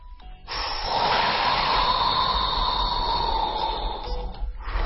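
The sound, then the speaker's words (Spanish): A deep breath drawn in through pursed lips during a breathing exercise, one long steady airy hiss lasting about four seconds, fairly loud, with no talking. “Vamos a hacerlo un par de veces y tomamos una respiración profunda.”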